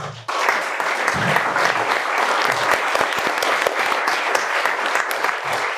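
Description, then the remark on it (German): An audience claps steadily for three speakers at the end of an evening's program, a dense wash of many hands at an even, fairly loud level from start to finish, with no one speaking over it. “Vielleicht mal großen Applaus hier noch.”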